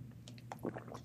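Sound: sipping water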